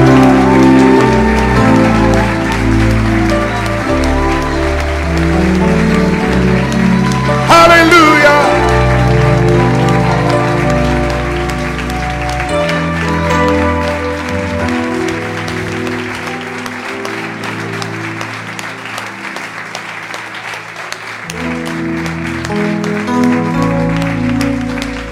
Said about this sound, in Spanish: Aplauda, Él está aquí en medio.